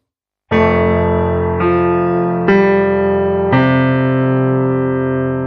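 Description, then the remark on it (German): The bell of a neighbourhood church chimes the quarters: four loud, ringing strokes at an even pace, each with rich sustained overtones that hum on and blend into the next. No voices are heard. “Er versuchte, die Dunkelheit mit seinen Frettchenaugen zu durchdringen, als die Glocke einer Kirche in der Nachbarschaft vier Viertel schlug.”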